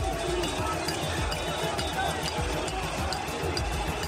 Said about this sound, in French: Le bruit des casseroles qui ne faiblit pas et se fait entendre à chaque déplacement d'un membre du gouvernement.